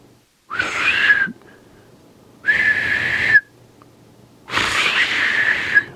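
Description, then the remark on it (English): A person tries to whistle a sparrow's call three times, producing breathy, airy bursts about a second each with only a thin tone coming through. The bursts are fairly loud, with short pauses between. “But uh, anyway, it goes like a little.”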